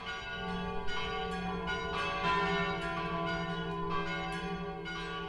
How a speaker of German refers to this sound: Selbstverständlich sind auch die Glocken der Regner Stadtpfarrkirche St. Michael schon im BR archiviert.